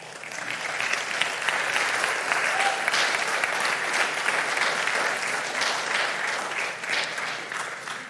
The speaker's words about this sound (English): That's good. You can applaud again.